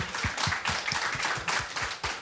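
A small group in a radio studio applauds a participant who took part in the song, in a steady, continuous round of clapping that stays fairly loud throughout, with individual claps overlapping in a dense patter and no voices.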